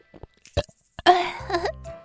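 A few soft smacking clicks, then a single drawn-out, contented burp after eating a watermelon, rumbling low and throaty for almost a second before trailing off.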